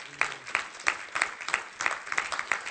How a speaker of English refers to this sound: Give the Lord one more hand clap.